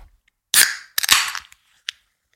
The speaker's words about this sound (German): Ich öffne jetzt eine Dose, passt auf.